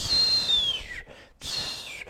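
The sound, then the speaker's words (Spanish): A voice imitates a whistling chiflador firecracker held in the hand: two high, shrill whistles that slide downward in pitch, separated by a brief pause, fairly loud, with no talking over them. “El otro güey que estaba aventando de esos güeyes que agarran los chifladores con la mano.”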